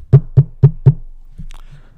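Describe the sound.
Four firm, evenly spaced knocks on a school classroom door, fairly loud, followed by a brief quiet stretch with faint shuffling.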